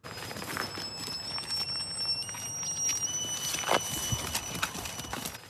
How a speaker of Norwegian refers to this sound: Så hører du det piper nå. Da er de kommet bort til grensa der de ikke skal være. Så snur de. Rundt halsen har de en klave som gir de signal om eh, hvor de får gå og ikke gå.